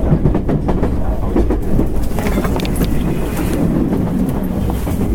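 A JR West 225 series Special Rapid Service commuter train runs from Ashiya to Osaka, Japan, with a loud, steady low rumble, broken by irregular clacks and rattles as the wheels pass over rail joints, heard from onboard.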